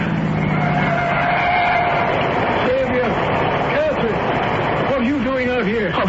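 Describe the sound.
A car with its headlights on comes along the main road to town, its engine rumbling steadily with a faint tire-like whine early on, and people's voices call out over the motor noise.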